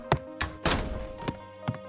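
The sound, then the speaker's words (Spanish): A bedroom door slams shut with a heavy wooden thunk as a crying boy runs to shut himself in his room, surrounded by a few more dull knocks, one louder and longer than the rest, with no voices. “no pudo evitar echarse a llorar e ir corriendo a encerrarse en su cuarto.”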